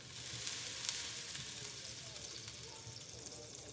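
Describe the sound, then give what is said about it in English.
Steady sizzling of caramel cooking in a hot cast iron pan for a tarte tatin, a continuous crackly hiss with occasional sharper pops, fairly quiet and with no talking over it. “You basically make a caramel in the bottom of a frying pan, stack the apples in it in like a in a cast iron, and then you put some puff pastry over the top of that and bake it real quick.”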